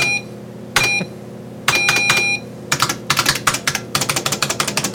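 Loud typing on a computer keyboard, with a few short electronic beeps early on, then a fast, steady run of sharp key clicks. No one speaks.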